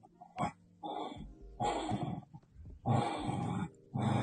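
A dog playing alone with a plush toy gives a series of rough, growly barks in four drawn-out bursts with short pauses between, fairly loud, like excited play. No one speaks.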